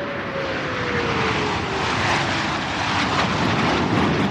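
military aircraft flying overhead

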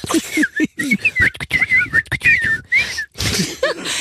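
human whistling

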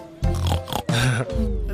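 pig oinking

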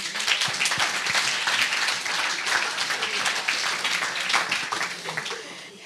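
applause

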